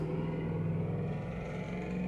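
A car engine rumbles steadily as it passes, a continuous low droning hum with a slight rising whine, heard on its own with no talking.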